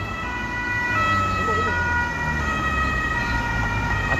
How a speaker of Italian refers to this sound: attenzione perché motociclista con sirena vuol dire che sta passando qualcosa di, di grosso ferma il traffico, scende, motociclista in mezzo alla strada, motociclista dei carabinieri con sirena, in mezzo alla strada fa un gesto, scende,